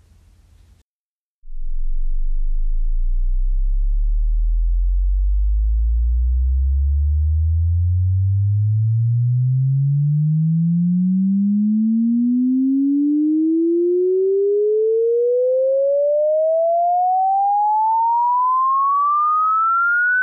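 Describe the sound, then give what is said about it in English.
A steady test tone for evaluating a car's audio system starts very low and rumbling, then glides smoothly and continuously upward in pitch for about twenty seconds, ending as a clear mid-high whistle, with no voices. “Now, if you didn't hear anything for a few seconds at the beginning of that 30 seconds, that means your system cannot reproduce low frequency signals.”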